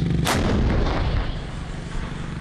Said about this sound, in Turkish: Türkiye 33 şehidin yasını tutarken bir saldırı haberi daha geldi İdlib'den. Rusya destekli rejim topçu saldırısıyla yine Mehmetçi'yi hedef aldı.